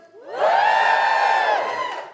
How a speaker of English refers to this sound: Uh, just give us a cheer if you think men should be doing more feminism.